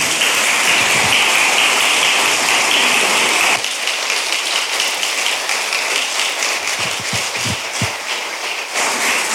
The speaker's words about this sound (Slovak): Tak môžeme tiež dať potlesk.